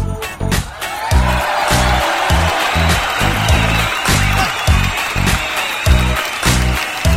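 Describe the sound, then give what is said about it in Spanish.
Loud, sustained applause, called for as a greeting to Colombia during a musical dinner show, fills the whole stretch as a dense crackling wash, with a steady, regular low thumping beat pulsing underneath. “Fuerte el Fuerte el aplauso hasta Colombia.”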